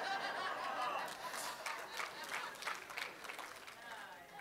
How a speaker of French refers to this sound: Vous applaudissez le seul commentaire qui vient pas de moi. Merci.